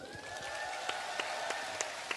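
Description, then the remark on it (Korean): An audience applauds one another for not staying silent during the era of the culture and arts blacklist, a steady wash of clapping with sharper claps standing out at a fairly even rhythm. A faint steady tone runs beneath the noise. “그 블랙리스트 때문에 굉장히 그 고생도 많이 했지만 사실은 이런 어두운 시대에 우리는 침묵하지 않았다. 라는 것에 서로서로 박수.”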